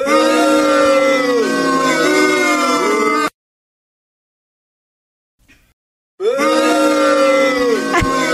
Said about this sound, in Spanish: a más abucheos para Lidia por si faltaban.